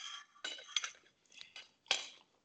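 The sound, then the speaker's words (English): Bright clinks and scrapes of cutlery against a plate as someone eats a meal: several short metallic taps in an uneven rhythm, with quiet pauses between them and no talking. “And then, apologies, sorry, I shouldn't be eating.”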